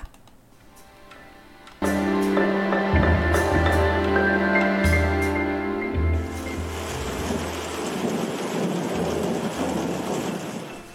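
After a moment of near quiet, a loud, deep rumble rolls in and gives way to a steady, dense hiss like heavy rain pouring down, continuing to the end with no voices.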